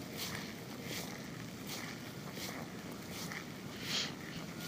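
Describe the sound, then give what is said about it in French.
Slow, regular footsteps squelch through wet volcanic ash mud from the Sakurajima volcano, ash turned to mud by rain, each step a soft sucking splash over a steady background wash of wind or water noise. “Avec la pluie, euh, la cendre se transforme en boue et ça fait squitch squitch du coup.”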